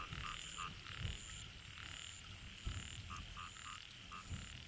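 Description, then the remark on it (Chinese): A chorus of toads croaking together in a paddy field, overlapping calls with repeated short pulses and a steady high-pitched ringing layer, fairly loud and continuous with no talking. “蛤蟆在水田里群叫，深夜静听，往往变成一种金属音，很是特别。”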